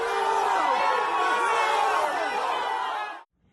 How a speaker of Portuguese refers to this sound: Em uma das imagens é possível ouvir as vaias enquanto o ex-presidente Temer caminha do lado de dentro